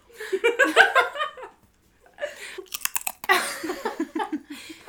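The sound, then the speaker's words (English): Crunching as someone bites and chews a crisp cracker, a quick burst of sharp crackles in the middle, with giggling laughter before and after. “it's seriously, it's so crunchy. I let me just chew this.”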